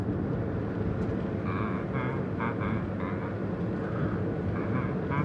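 A steady low engine rumble fills the cabin of a moving car while a man hums a wavering tune inside, close and moderately loud over the road noise.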